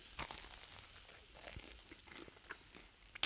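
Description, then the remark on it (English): Dry, crisp crinkling and crunching as toast is handled and broken, with irregular small cracks and rustles throughout and a sharper snap at the very end. “That's the sound of toast.”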